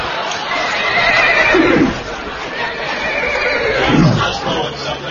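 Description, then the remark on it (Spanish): A horse whinnies twice, loud, each call a shrill, quavering neigh that drops in pitch, separated by a couple of seconds of steady background noise. “Entonces el caballo renunció.”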